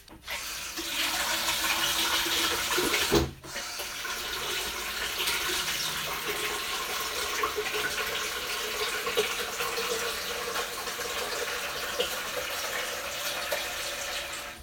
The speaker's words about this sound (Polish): Więc ja sobie nalewam tę wodę do zbiornika.